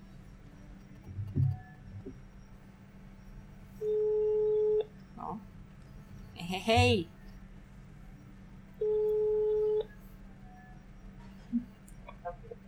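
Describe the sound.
An outgoing phone call from Liepāja to a contact in Valmiera rings: two steady, mid-pitched ringback tones, each about a second long, spaced several seconds apart, with a brief chuckle and faint room noise in between.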